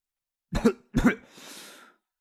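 Two short, throaty coughs in quick succession, each a sharp double-peaked burst, followed by a soft, breathy exhale that trails off. No talking.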